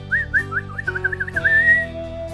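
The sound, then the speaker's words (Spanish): Quick, warbling whistles trill and flutter like birdsong, then settle into one long held note, all over a soft musical backdrop. Children whistling in imitation of bird songs, clear. “Adiós, adiós, los despidieron los niños y cuando los perdieron de vista, se entretuvieron silbando e imitando sus cantos.”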